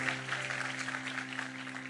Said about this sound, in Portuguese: Vamos aplaudir o Senhor.